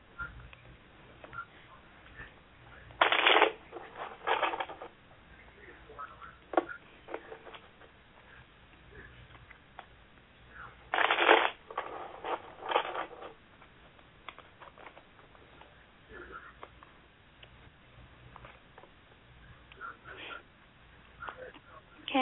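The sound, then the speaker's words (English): Tarot cards being shuffled during a reading about love life, in two brief, crisp riffling bursts separated by several seconds, with faint shuffling and light taps in between against a quiet background; nobody speaks. “Okay, as I'm praying and I'm shuffling the cards, I want you to um, say a silent prayer that they're able to reveal to you what you need to know today about your love life.”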